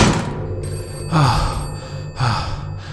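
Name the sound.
phone ringing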